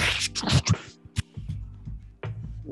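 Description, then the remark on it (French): A voice imitates door mechanisms engaging with a quick series of hissy, scraping bursts, a sharp click, then a low grinding, clunking rumble, all loud. “Et à ce moment-là, tu entends les mécanismes qui s'enclenchent, ça fait une espèce de.”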